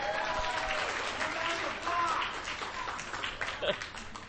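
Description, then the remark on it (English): A crowd applauds the VoiceOver screen reader steadily for a few seconds, a dense patter of many hands clapping at once, with a few voices faintly mixed in beneath the clapping. “Yeah, let's hear it for VoiceOver, right?”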